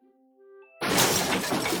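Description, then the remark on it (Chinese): Sugar glass shatters as a film's male lead passes through it in a movie special effect, the glass made of sugar so he is not cut: a sudden loud burst of bright, crackling noise that sustains for about a second. A few faint tonal hums precede it, and no one speaks. “瞧，为了确保男主角的身体在穿过玻璃的时候不被割伤，这些玻璃啊都是用糖做的。”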